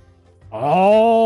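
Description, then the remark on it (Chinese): A storyteller reading a children's story imitates the lion's roar: after a short quiet pause, one loud, drawn-out vocal bellow swells up and holds steady, rich and wavering in tone, with no other voices. “看看合起来的书，开始大吼”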